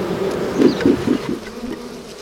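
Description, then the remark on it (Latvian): A dense, steady hum of many honeybees buzzing together inside a hive, moderately loud, with a low droning tone that wavers slightly in pitch. No voices. “Bet, ja nav mātes vai kaut kas, kaut kas cits nav barības, tad ir pilnīgi cita, cita skaņa.”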